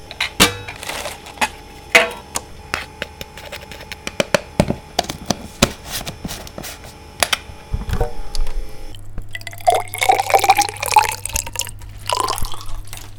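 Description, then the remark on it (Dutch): A steady mechanical hum from a minus 80 degree laboratory freezer used to store samples, a low drone with faint tonal whine, under scattered sharp clicks and dripping, clinking lab noises; no one speaks. “Dus dat is het eh, geluid wat je hoort op de achtergrond. en de min 80 is eigenlijk dus gewoon een vriezer die min 80 vriest.”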